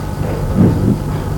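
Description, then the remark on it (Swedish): Deep, steady rumble of heavy trucks driving at full throttle outside a monastery, swelling louder for a moment midway before settling back into a continuous low roar, with no voices. “när lastbilarna går på för full gas här utanför.”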